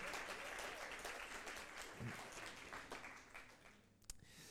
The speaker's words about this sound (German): Ähm, äh, geben wir mal den, den Leuten hier einen Applaus, oder? Hier vorne und so.